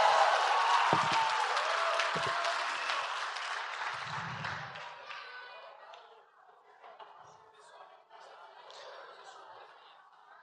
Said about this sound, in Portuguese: Uma salva de palmas pro nosso videomaker, videomaker.